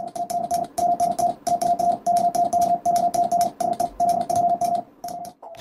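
Extremely rapid Morse code as sent in competitive high-speed Morse sport: a steady, loud beeping tone chopped into dots and dashes so quickly it almost blurs into one continuous whine, with crackly radio-like noise underneath.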